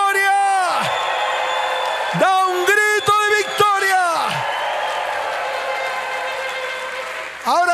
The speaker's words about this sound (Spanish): Dele fuerte ese aplauso y da un grito de victoria.